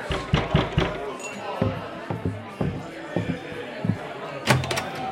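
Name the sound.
knocking on a door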